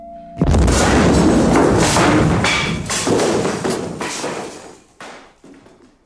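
bomb explosion

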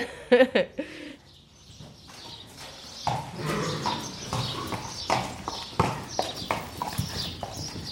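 horse hooves clip-clopping

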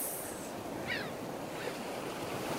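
ocean waves surf

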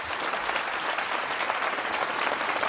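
audience applauding

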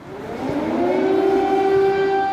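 air raid sirens wailing

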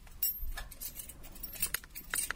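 keys jangling

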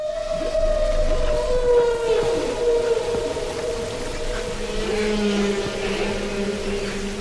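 humpback whale song

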